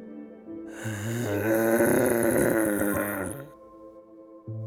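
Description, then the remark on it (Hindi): Three dogs with Squealer growl menacingly, a low rumbling snarl that swells loud and harsh for a couple of seconds before trailing off, with no one speaking. “लेकिन स्क्विलर इतने विश्वास के साथ बोला और उसके साथ तीन कुत्तों ने बहुत ही डरावने ढंग से गुर्राया”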